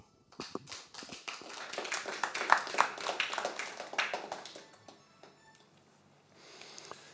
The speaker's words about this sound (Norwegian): Igjen en varm applaus.